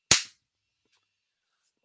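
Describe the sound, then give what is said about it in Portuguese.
A single sharp hand slap rings out loud as someone swats a mosquito, a quick crack that fades within a fraction of a second, followed by near silence. “Deixa eu matar esse mosquito aqui.”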